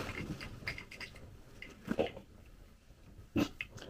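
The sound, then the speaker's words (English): A seven-month-old female adopted pit bull mix puppy eats orange peels, with wet chewing, smacking and snorting in short irregular bursts and a couple of louder crunchy chomps. No one speaks. “She's a seven month old adopted pit bull mix of some kind.”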